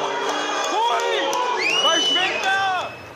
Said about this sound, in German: Genau, da hat man auch die, äh, die Reaktion im Saal schon gehört. Ähm, natürlich wurde das, diese Aufnahme, die stammt ja aus einer Ecke, wo eben die Rechten ein bisschen auf einem Haufen saßen.